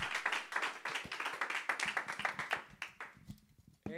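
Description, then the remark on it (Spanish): An audience gives a loud applause to Jesus, clapping hands together in a dense, steady burst lasting a few seconds, loud and overlapping, then tapering off as a voice begins speaking at the end. “Si tú lo quieres, dar un aplauso fuerte a Jesús.”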